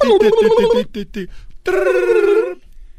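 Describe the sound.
A voice mimics a telephone ringing: a trilled, warbling tone held for nearly a second, a couple of short chirps, then a second long ring after a brief pause, loud.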